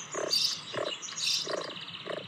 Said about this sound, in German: Also, das sind die Frösche.